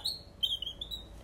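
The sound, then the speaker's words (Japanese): Quick, high squeaky chirps like a small bird tweeting, made by rubbing a wooden bird call with a screw inside, called a Trio Echo; fairly soft, in a short burst with no talking. “小鳥の声が出るそ木のなんかこうネジが入ってるやつみたいなのをこうやってすり合わせるとこういう音が出るっていうのがエコーエコーっていうの、うん、トリオエコーって名前がついてる、うん、バードバードエコーみたいなね”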